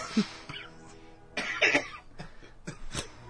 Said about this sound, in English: um, I see you got a coughing fit too. I, I think there's something in this studio.